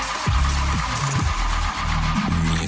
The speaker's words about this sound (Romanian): Nu, asta e sunetul pe care l-auzeai tu într-o, în fiecare dimineață până să ai uh, bani de mașina pe care o ai acum. Oh! la ce, la trăsură? nu mă, că nu-ți pornea motorul, nu vezi că e... Bo- e motorul care nu pornește.